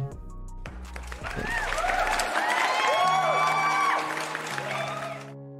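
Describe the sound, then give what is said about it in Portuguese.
A crowd applauds and cheers for a few seconds, with whoops and shouts rising over steady clapping. It swells to its loudest in the middle, then fades, over a low humming background. “Não tem um forte abraço, aba, abraço, abraço, mas tem os aplausos.”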